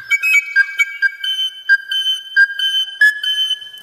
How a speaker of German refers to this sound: Als ihm dies bestätigt wurde, zog er eine schwarze Pfeife aus einem Beutel. Die Töne, die er seinem Musikinstrument entlockte, waren nicht sehr angenehm.